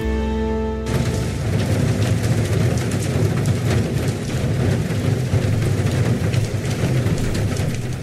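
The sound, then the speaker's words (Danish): A brief tonal note gives way to a steady, dense roar of heavy rain pouring down with thunder, constant and loud throughout, with a low rumbling undertone and no voices. “Det regner skal du, jeg love for. Kan du høre?”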